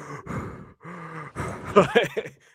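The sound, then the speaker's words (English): Heavy, menacing breaths rasp right into the microphone, a series of drawn-out inhales and exhales, some voiced like low groans, in the style of a horror-movie villain, done as a Halloween prank. “I've got the Michael Myers breaths going on right yeah. now”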